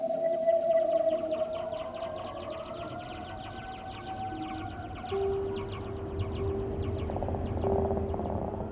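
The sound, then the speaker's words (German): Whale song with long, gliding tonal moans and sweeping calls, layered over a steady low underwater rumble and faint rhythmic clicking, sustained throughout without any talking. “Riesentintenfische, leuchtende Korallen, singende Wale.”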